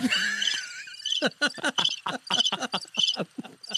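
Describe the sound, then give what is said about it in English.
A cricket sound effect: crickets chirp in a quick, steady series of short pulses, fairly loud, following a brief high whistling tone at the start. “Chirp. chirp.”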